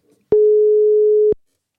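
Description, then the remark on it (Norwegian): A single steady electronic telephone ringing tone of an outgoing phone call sounds for about a second, clear, then cuts off into silence. There are no voices. “Eh, vi fikk ikke prata med henne forrige uke, så jeg tenkte det er på tide å ta en telefon til henne nå.”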